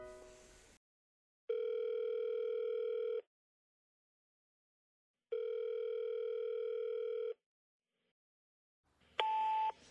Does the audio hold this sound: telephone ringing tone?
yes